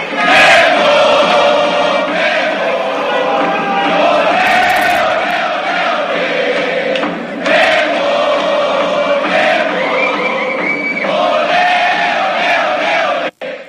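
A large crowd chants and roars together inside the terminal of Mexico City International Airport, a loud, continuous wall of massed voices with sung, rising and falling cries that hold steady for the whole stretch before cutting off abruptly.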